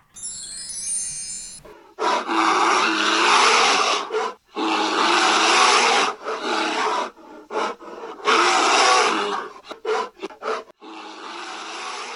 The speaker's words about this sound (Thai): ที่ได้ยินนั้นก็คือเสียงของหมีที่ร้องคำรามอยู่ในป่านะคะ ได้ยินเสียงแล้วรู้สึกว่าแตกต่างกับเจ้าตุ๊กตาหมีตัวนุ่มๆกลมๆของเรามากเลย